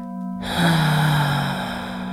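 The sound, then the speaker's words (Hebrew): A deep, airy breath, drawn in and let out over about a second and a half, over a soft, steady humming drone. “לוקחת נשימה עמוקה, לשחרר הנחת הודיה.”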